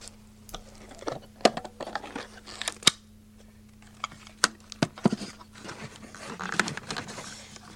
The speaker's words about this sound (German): Als kleines Geburtstagsgeschenk habe ich hier etwas zum Reinhören und ähm, ich fange an mit dem Ganzen auszupacken.